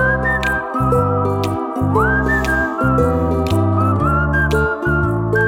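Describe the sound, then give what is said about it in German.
A person whistles a steady, sustained tune with a few sliding notes, accompanied by rhythmic instrumental backing chords, loud and continuous throughout. “Pfeif noch ein bisschen weiter.”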